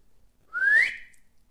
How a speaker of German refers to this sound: Die Alte zog ein silbernes Pfeifchen aus ihrer Jackentasche und pfiff.